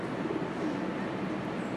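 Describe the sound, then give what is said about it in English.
Soft, low cooing of two pigeons, one white-headed and one gray-headed, near the Wall Street bull in New York, blending into a steady wash of outdoor background noise with no one talking. “I got two fat pigeons cooing in front of me.”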